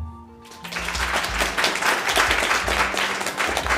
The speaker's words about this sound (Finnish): Olisi varmaan aika korkea aika antaa raikuvat aplodit meidän hienolle raadillemme.